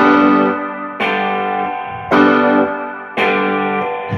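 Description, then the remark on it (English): A distorted electric guitar played through the J Rocket strikes a G power chord four times, roughly once a second, each hit loud, ringing out with a gritty, buzzing sustain before the next strum. “gonna hit a G. So G G power chord.”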